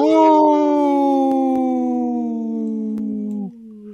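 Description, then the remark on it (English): A person imitates a wolf howl on Native Roots Radio during a sponsor message for Howling for Wolves: one long, loud, drawn-out note sliding slowly downward in pitch for several seconds before breaking off. “This portion of the show is supported by Howling for Wolves, protecting wolves for future generations. Howl!”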